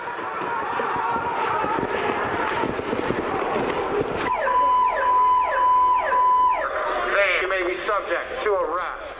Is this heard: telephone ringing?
no